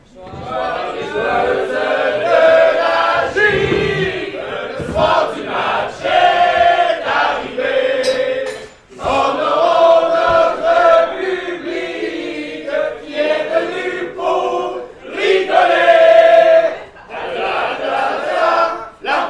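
A crowd of voices sings the traditional 'hymne de la gifle' anthem together, loud, in sustained phrases broken by brief pauses, the unison rough and partly shouted, with hats and caps taken off and hands on hearts.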